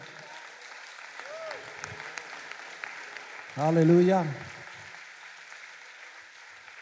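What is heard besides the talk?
audience applause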